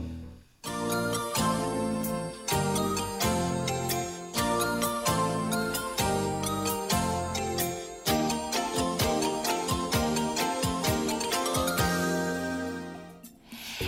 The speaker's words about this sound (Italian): Chi è come me degli anni Ottanta avrà probabilmente riconosciuto questa sigla. Eh sì, Anch'io da bambina guardavo il cartoon Vola mio mini pony.